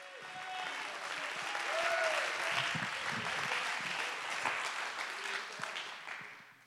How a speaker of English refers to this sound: Somebody clap your hands and give him praise.